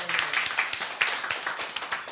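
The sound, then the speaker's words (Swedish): An audience applauds in thanks to the people who chose the day's music, a dense patter of many hands clapping at a steady, moderate level, with the individual claps blurring into a continuous crackle. “En applåd till dem.”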